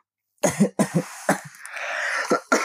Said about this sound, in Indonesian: Itu kamu kenapa lagi batuk-batuk? Kamu sakit ya?